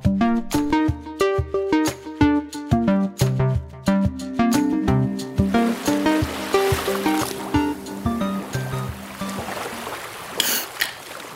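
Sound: ocean waves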